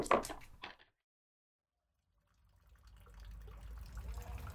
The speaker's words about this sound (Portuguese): A água da fonte sai de uma parede de azulejos brancos com detalhes em azul. Descendo alguns poucos degraus de pedra, se chega ao cano de onde escorre, discretamente, uma água cristalina.